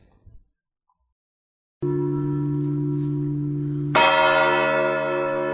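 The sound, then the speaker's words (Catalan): A large bronze church bell named Narcís, in the bell tower of València Cathedral and bearing bronze reliefs of the Transfiguration and the Virgin Mary, tolls. Its deep, sustained hum rings for a couple of seconds before a second, brighter strike rings out loudly and lingers with rich overtones. “Una campana, preciosa, amb uns relleus en bronze que representen la transfiguració i la Mare de Déu.”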